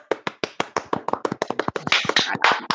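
Audience applause for an audio message: a burst of claps that begins as distinct, fairly regular sharp slaps and quickly thickens into a denser, brighter patter of many hands clapping together.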